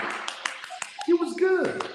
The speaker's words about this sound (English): and you go, thank you, good night, like you get that Randy Watson clap. You know the Randy Watson coming from all different one person clapping